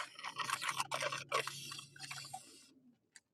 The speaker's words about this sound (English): Um, don't slurp on the radio or on the podcast.